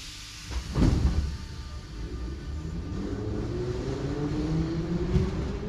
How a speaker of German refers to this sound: Im Gedächtnis bleibt auch die Petersburger U-Bahn, von allen Metro genannt schon weil ihre Bahnhöfe unglaublich tief unter der Erde liegen. Ihre Waggons aus den 50er Jahren rattern mit einem Höllenlärm durch die Tunnel